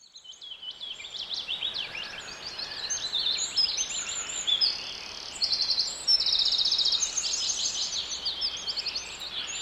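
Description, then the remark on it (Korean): Many birds chirp and sing continuously in a forest, overlapping bright twittering calls layered over a soft, steady background hiss, with no voices present. “숲속의 새소리입니다.”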